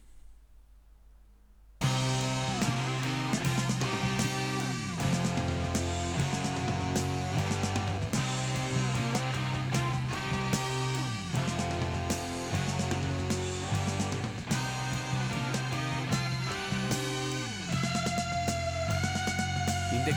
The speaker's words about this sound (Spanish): Eh, y, es, y, es, un disco del 69, los, unos de los padres del rock progresivo.